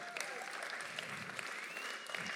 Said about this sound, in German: Einen Applaus für Team On.